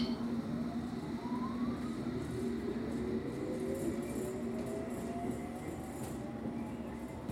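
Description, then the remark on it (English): An all-stations Metropolitan Line underground train to Amersham rumbles steadily, its electric motors whining in gliding tones as it slows to pull into Chorleywood station in Hertfordshire. No one speaks. “This is an all stations Metropolitan Line train to Amersham. The next station is Chorleywood.”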